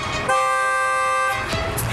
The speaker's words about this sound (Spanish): nosotros comenzamos un conteo aquí con el teléfono para detectar el tiempo que demora la alarma en activarse con el niño dentro del vehículo